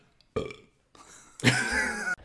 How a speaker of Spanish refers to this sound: Casi erupto. O sea, me ha salido como un erupto. como Hubiese sido un TikTok eso. Pues, ¿quieres que eructe? Bueno, sí, de forma casual.